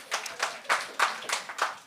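A small audience claps for the people who got through seasonal depression, in a loose, uneven rhythm: roughly seven sharp, bright hand claps over two seconds, moderately loud, with no voices.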